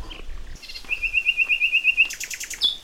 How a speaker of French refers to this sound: Ça va les oiseaux